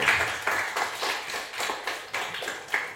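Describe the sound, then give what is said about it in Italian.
A crowd applauds steadily after the theme song of 'la tribù', as an applause meter, many hands clapping in a dense, bright wash with slight rhythmic surges, moderately loud throughout and with no voices. “E questa era la sigla della tribù, un altro applausometro.”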